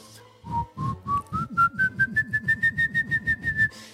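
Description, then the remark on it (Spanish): A voice imitates the shrill whistle of the Silbón of Latin American folklore, a tone rising steadily in pitch across a quick run of about fourteen pulsing bursts, loud, with no other sounds. “Así muy agudo, pero suena como un grito, güey. Es como un chiflido, no tanto como silbido, es como un chirrido, güey.”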